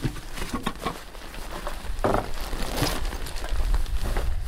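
Camping pots being taken out and handled, with a series of irregular clatters, light clinks and rustling scrapes at moderate volume, a couple of sharper bursts midway, and no talking.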